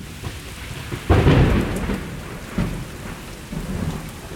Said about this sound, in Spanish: ¡Bum! De repente oyó un trueno y empezó a llover.